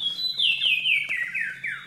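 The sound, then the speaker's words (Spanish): A small rock-dwelling bird in a forest full of rocks sings a bright cascade of clear whistled notes, about six, tumbling steadily downward in pitch. It's loud over a faint low background hum. “estás en medio del, del, bosque lleno de piedras y escuchas de pronto este canto que es como... Tú lo escuchas por allá y tratas de buscarlo pero de pronto el pajarito conoce muy bien su territorio, se mete por las grietas y sale por otro lado.”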